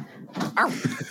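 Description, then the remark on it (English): A person imitates a dog with a short run of voiced barking sounds, one louder yelp in the middle followed by a couple of quicker, softer bursts. “That's my dog impression.”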